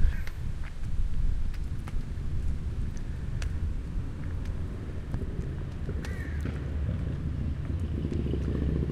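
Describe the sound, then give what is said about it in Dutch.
A steady low rumble of car traffic passing, continuous throughout, with occasional sharp ticks and taps. “hoor nu wel auto's.”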